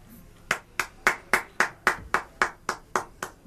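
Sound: hand clapping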